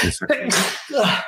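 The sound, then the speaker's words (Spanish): A single sharp sneeze caused by allergies bursts out, with a brief voiced sound before it and a short laugh-like vocal sound trailing after. “Salud. Ah, perdón, alergia, ayer lluvias y ahorita calor, caray.”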